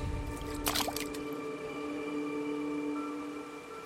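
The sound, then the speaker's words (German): A hand dips into the water of a small pond with a short, squishy splash and a few drips early on, followed by a steady, sustained tonal drone with no talking. “mit ihrer Hand in das Wasser greift, strahlt es, als würde es von ihrer Hand aus beleuchtet werden.”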